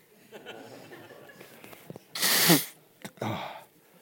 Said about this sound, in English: I'm now going to blow my nose. Mr. Audio, do your thing.